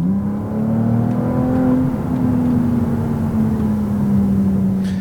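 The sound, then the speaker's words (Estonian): A Ferrari engine rumbles steadily while driving out of a parking lot, a deep sustained hum with a bright harmonic tone that rises slightly then holds, loud and continuous with no voices. “ma loodan jah, et, et ka see müdin tuleb siit nüüd läbi natukene”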